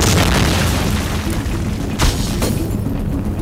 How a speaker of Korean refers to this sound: 폭발음은 점점 커지고 불길이 운전석 쪽으로 번져오던 그때